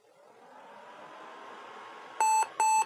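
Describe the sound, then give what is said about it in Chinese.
Two loud, steady electronic beeps from a laptop at startup warning that its battery cannot be identified and will not charge, each lasting about a quarter second with a short gap between, over a faint background hiss. Muting and plugging in headphones do not silence them. “我开个机，大家听听这声音啊，就像这个”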